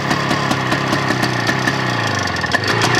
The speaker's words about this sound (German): Da hört man zwei Takt da schon raus. Das klingt ein bisschen wie so ein kleiner Roller. Ja, das, das ist äh, Baujahr 57. Die sind auch von der Schalldämmung noch nicht so optimal.